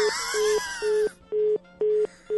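A telephone hang-up tone after the other party hangs up the call: a steady mid-pitched beep pulsing on and off in a fast, even rhythm. For the first second, a wailing, moaning voice partly covers the beeps.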